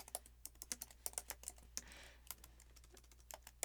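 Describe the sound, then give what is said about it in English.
Rapid, irregular clicking of keys on a computer keyboard as someone looks something up online, fairly quiet, with a brief softer rustle partway through and no voices. “You're going to hear my typing, okay?”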